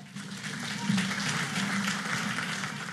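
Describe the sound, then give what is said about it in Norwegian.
A large crowd of Law and Justice party supporters in Poland cheers and applauds steadily for party leader Jaroslav Kaczynski, a dense wash of clapping and voices with a low rumble of chanting underneath, sustained without pause throughout. “Vårt mål er at Polen blir et sterkt land av glade mennesker, sier partileder Jaroslav Kaczynski til jublende tilhengere.”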